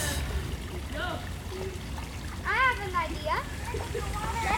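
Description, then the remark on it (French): A stream trickles and splashes steadily throughout, a continuous watery wash, while children playing in the stream call out intermittently in high voices over it, loudest around the middle. “Parce que les enfants aiment vraiment jouer dans le ruisseau.”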